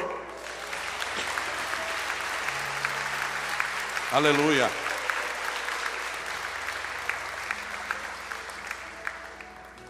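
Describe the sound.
An audience at a church service applauds the Lord in sustained, dense clapping that fills the whole clip, with a single voice rising briefly over the applause midway through.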